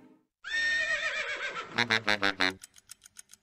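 A horse whinnies loudly, a long wavering high cry that breaks into a rapid series of shuddering pulses fading out at the end.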